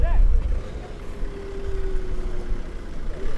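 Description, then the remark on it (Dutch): An ambulance in a drill drives past, carrying men in gas masks, white suits and blue gloves with a mock patient. A heavy low engine rumble sounds under a steady mid-pitched siren-like tone that slides slowly downward in pitch as the vehicle goes by. “Nou, passeert mij nu een ambulance met mannen met gasmaskers in witte pakken, blauwe handschoenen aan en een fake patiënt erin.”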